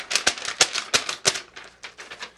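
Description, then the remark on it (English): Crisp paper rustling and crinkling in a quick series of sharp bursts, louder at first and then softer and more scattered, with no one talking, as a paper copy of Storm Lake's schedule is taken out and handled. “Paper look, sound effects.”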